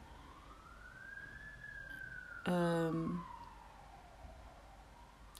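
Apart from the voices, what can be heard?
ambulance siren passing outside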